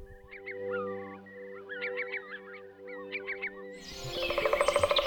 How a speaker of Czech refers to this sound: Chybí ti čerstvý vzduch a ptačí cvrlikání? Tak běž do lesa.